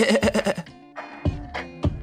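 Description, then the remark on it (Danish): A goat bleats in a loud, quavering burst, followed by a few shorter bleats, within a piece of background music of steady sustained musical tones. “i min yndlingsbaggrundsmusik, som er den her, i den er der en brænde ged midt i det hele.”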